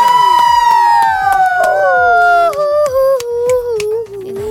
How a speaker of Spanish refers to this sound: Un aplauso, un aplauso.